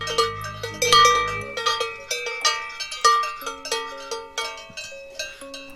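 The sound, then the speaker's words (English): A small bell on a cow clanks repeatedly in an uneven, lurching rhythm as the cow hobbles along, each metallic strike ringing out bright with a short decay, with no talking over it. “As this infected cow with its little bell so to hobble its way over.”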